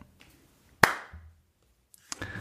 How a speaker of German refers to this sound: Ja, ja, ja, bevor wir weitermachen, ich brauche noch deinen Clap. Gib mir mal einen Clap.